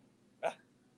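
A single short, sharp sneeze bursts out once against a quiet, faintly humming background, with no talking around it.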